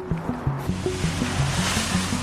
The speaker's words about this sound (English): They use a special fogging machine, misting even the walls and floors with chemicals believed to help kill the virus.